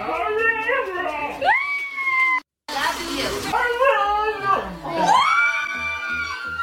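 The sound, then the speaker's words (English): A dog in Massachusetts, taught by its owner to say "I love you", makes drawn-out, speech-like howling whines that rise and fall in pitch, mimicking the phrase in a few loud phrases broken by a brief pause. “She taught her dog to say, I love you.”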